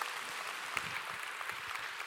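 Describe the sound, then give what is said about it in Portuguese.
An audience gives a loud applause to the Lord, many hands clapping together in a dense, steady wash of sound that holds at an even level throughout, with no voices standing out. “Dê um aplauso bem forte a Ele.”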